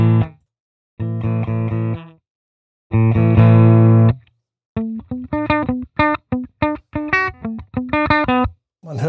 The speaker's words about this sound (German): so dieses Bloppen auch so ein bisschen. Ja, das ist immer so ein typisches ähm, Kompressor. Äh, dann hört man immer gut dran, dass der Kompressor, aber das sind halt diese diese äh, äh, Lautstärken, die auf einmal hoch, hoch, hochgeholt werden